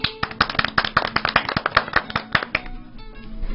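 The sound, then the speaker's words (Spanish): A crowd claps for a few seconds for a woman called up on stage to give a presentation on the Day of the Amazon: dense overlapping hand claps with sharp transients and an uneven rhythm, loud at first and then thinning out as the applause dies away. “Un aplauso fuerte para doña Cleofe, por favor.”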